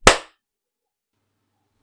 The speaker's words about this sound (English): That should be a good clap.